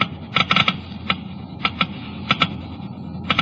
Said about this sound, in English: Listen now as the Geiger counters click off the difference. First, the low wear rate of the new RPM. Now the much faster wear rate of the conventional oil. Now new RPM again.